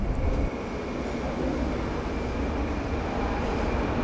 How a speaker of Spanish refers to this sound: Madre mía, no sé si se va a escuchar esto. Porque estoy en el tren. Yo creo que no se puede grabar audios en el tren.